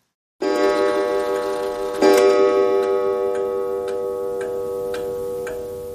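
A clock in a lit room of a village house strikes two o'clock with rich, ringing chimes that hang and slowly fade, while a steady, crisp ticking continues beneath the lingering tone.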